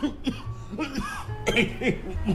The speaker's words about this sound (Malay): Kau! Kau! Tak payah nak batuk-batuk, nak berdrama,